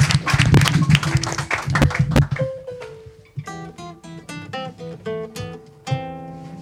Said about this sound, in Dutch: Applaus nog één keer voor Strontvlieg.